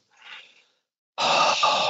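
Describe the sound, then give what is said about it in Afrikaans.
A deep breath: a soft, airy inhale, a short pause, then a much louder, forceful exhale rushing out. No talking. “Weer diep asem inasem en uitblaas.”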